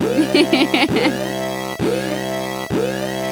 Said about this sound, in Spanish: Esa es la alarma de que se nos Acabó el tiempo. Con esto nos despedimos.